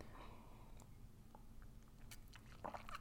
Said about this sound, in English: I'm just going to take a sip of my coffee.